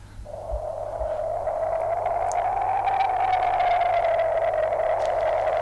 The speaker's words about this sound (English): very windy up there.